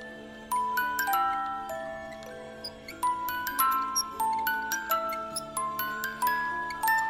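An old music box at Boholm Herregård (Boholm Manor) plays a plinking, bell-like tune of bright, sustained notes over a soft low hum, each note struck in a steady, slightly uneven rhythm as a little girl constantly turns the crank.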